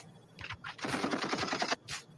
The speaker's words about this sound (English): oh, we know what the deal is. Gunshots.